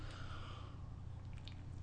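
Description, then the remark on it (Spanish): A faint, airy slurp as someone sips hot, freshly brewed, bitter black coffee without sugar, followed by a few soft wet swallowing clicks, all over a steady low hum with no talking. “Después de este sorbito muy necesario, tras una semana informativa bastante intensa”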